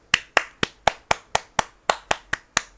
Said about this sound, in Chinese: 如果有跟我共鸣的人，有没有？有没有？鼓掌。